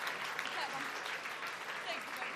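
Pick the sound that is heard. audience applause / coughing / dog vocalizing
audience applause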